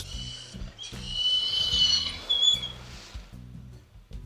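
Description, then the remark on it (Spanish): A dog holding a small piece of hard bread whines in high, squeaky, creaking cries like an old hinge, running almost continuously over lower rumbling, buzzy tones, with brief pauses between bursts. “en el vídeo que ahora lo voy a poner se oye llorar como que coge la comida y llora”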